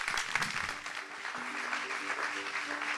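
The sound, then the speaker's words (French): Steady audience applause at the end of a festival conference on why we feel powerless facing the ecological crisis, a dense wash of many hands clapping at an even level for the whole stretch, with a faint hum of voices mixed underneath. “Je les applaudir.”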